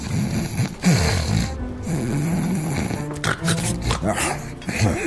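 Loud, rough snoring rumbles on without pause, a deep rattling drone broken by snorting catches and wheezy, growl-like breaths in an uneven rhythm.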